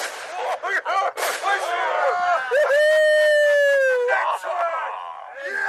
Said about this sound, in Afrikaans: Hoor daar, hoor daar. Polisie klomp juig asof hulle 'n groot wilde gans raak geskiet het.